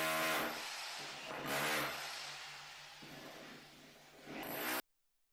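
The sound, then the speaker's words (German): A power drill grinds steadily into a wall, boring holes, for about five seconds, loud, its motor whine swelling in two or three surges before cutting off abruptly. “Jetzt haben wir gedacht, jetzt bohr ich auch mal Löcher in die Wand.”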